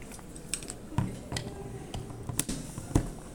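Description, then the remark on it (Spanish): Someone drinking water: soft clinks and handling noises of a cup or bottle, with a few quiet swallows and sharp clicks spaced through a short, speech-free pause. “Déjenme, denme chance, déjenme tomo agua.”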